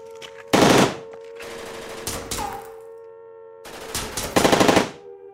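Loud bursts of rapid automatic gunfire in the audio drama Escaping Denver erupt in several volleys with short pauses between them, harsh, with a steady hum underneath and no voices.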